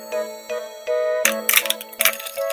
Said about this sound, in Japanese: 大きな手でコツコツ叩いてみると